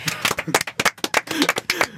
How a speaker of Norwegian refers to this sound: La oss klappe for henne.